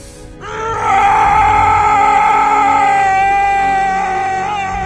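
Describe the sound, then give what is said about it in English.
A man's long, anguished scream from a comic book movie scene in which he finds a woman's body and screams to the heavens, loud and sustained with a raw harmonic tone, swelling after a brief lead-in and holding steady for several seconds before wavering slightly toward the end. “Second best scream in a comic book movie that we'll review, I believe.”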